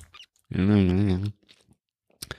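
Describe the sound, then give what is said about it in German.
A voice imitates continuous chewing with a wavering hummed mouth sound lasting under a second, surrounded by a few faint clicks and smacks. “Wenn man dann so für sich hinkaut die ganze Zeit.”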